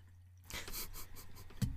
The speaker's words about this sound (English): You just need to pour more wine before you start this. Okay, fair enough. Do you want more wine?